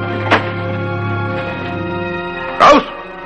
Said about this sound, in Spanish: Abren la puerta de la celda.